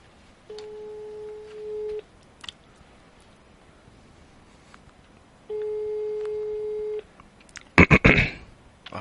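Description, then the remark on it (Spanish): A phone's ringback tone on speakerphone sounds twice as long, steady beeps a few seconds apart, slightly tinny, followed by a short burst of crackling noise at the end. “Si conecta, baja, pues si conecta, bajas el volumen y lo pones en altavoz, ¿vale?”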